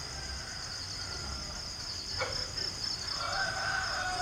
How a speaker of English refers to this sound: in the half hour or so of dawn light. I'm sitting on a balcony, listening to this small town waking up.